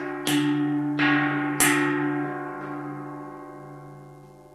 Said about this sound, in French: C'est étonnant, un bruit comme celui-là, et l'homme de frapper avec le bâton des deux côtés de la cloche.